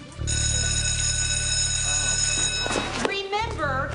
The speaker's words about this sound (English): As I said, you are going to hear the Mighty Morphin uh, alert, and then we'll get to the commentary in a moment.